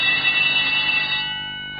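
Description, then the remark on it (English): A school fire alarm bell rings loudly and continuously during a fire alarm test at a school, a harsh, dense metallic clanging that fills the space with no pauses, then begins to fade slightly toward the end. “So we've heard the alarm.”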